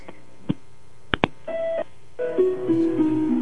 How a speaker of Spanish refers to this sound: Se le cayó. Bueno, le estábamos escuchando. Oye. Querido amigo, pero se cayó la llamada.